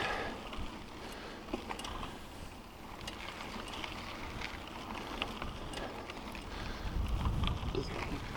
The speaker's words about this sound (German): Windig ist auch wieder schön. Ja, ja.